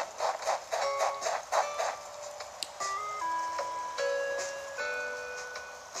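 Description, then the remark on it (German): A tinny, simple tune, K.K.'s love song from the game Animal Crossing, plays from an in-game suitcase record player by the player's house, with chiming notes first and then a slow melody of held synth tones, steady and moderately loud with no talking. “Den Kofferplattenspieler und das Kaka Liebeslied.”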